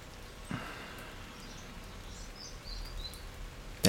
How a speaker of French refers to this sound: Tendez l'oreille, entendez ce léger grisement, grésillement de fond. C'est la pluie. Parfois une goutte plus importante qu'une autre. Ploc. Ploc.